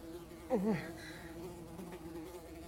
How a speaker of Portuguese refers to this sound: O zumbido das moscas é perturbador.